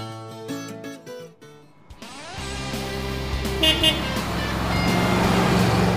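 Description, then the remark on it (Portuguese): Several truck horns blare in short, overlapping blasts at the MAN Volkswagen proving ground in Resende, then give way to a steady, rumbling engine drone that builds as heavy trucks being tested pass by. “Quantos caminhões ali, né?”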